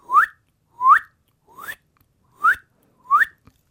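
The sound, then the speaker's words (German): A person whistles an imitation of a spotted crake's call: five short, sharply rising whistles at a steady, even pace, clear, with the third one softer. “Oder eben auch das Tüpfelzumpfhuhn, das dann auch so pfeift, so”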